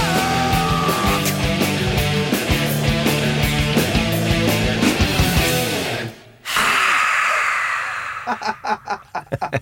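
Loud rock music with pounding drums and dense guitars plays for several seconds, then cuts off abruptly, followed by a breathy rushing noise and a few short, rhythmic bursts.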